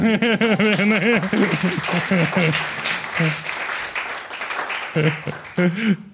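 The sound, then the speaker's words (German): A small group breaks into clapping that builds to a dense patter, mixed with laughter and excited voices calling out over it, then fades as the voices continue. “Applaus.”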